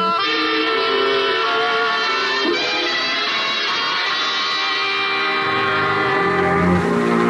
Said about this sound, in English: But when Ayu tried to answer, from out of his cherub's mouth, instead of words, would come a horrible sound a scourging, piercing, ear scraping, howling, and shrieking.